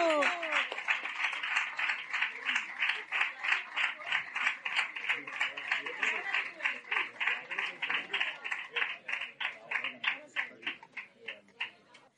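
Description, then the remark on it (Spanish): An audience applauding the day's participants: dense, crackling clapping that holds steady for about twelve seconds, then takes on a more pulsing, rhythmic beat toward the end. “venid conmigo, por favor aplauso, por favor, un aplauso.”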